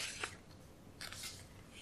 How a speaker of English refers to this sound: Oh, page turn, huh? We're not used to this.